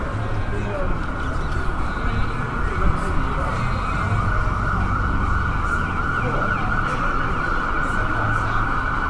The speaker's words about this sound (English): one more more hellish siren noises. Jeez, that's that's harsh. Yikes!